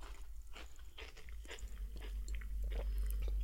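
Crunching on truffle potato chips: a quick series of crisp, irregular bites and crackles, moderately loud over a low steady hum, with no talking.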